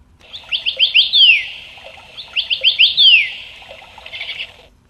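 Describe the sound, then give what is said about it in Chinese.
A small songbird sings in a treetop in a wood: two clear phrases, each a quick run of bright, high chirps ending in a sweeping trill, with a softer twittering tail at the end. No voices. “小猴走进树林子里，看见一只漂亮的小鸟在树梢上唱歌。”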